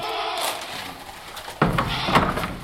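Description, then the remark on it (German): Ambience of a goat barn in Dummersdorf with relaxed goats: a steady hiss and faint animal murmurs, then louder rustling and shuffling of straw and hooves takes over for the second half. No one speaks. “In einem anderen Stall in Dummersdorf schauen entspannte Ziegen neugierig zu,”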